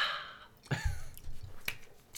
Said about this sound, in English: Let me have a delicious sip of the sidecar, and then I'll uh, jump right in.